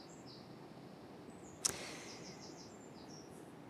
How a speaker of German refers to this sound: Ich merke gerade, du bist wieder verrissen, weil die Vögel pfeifen.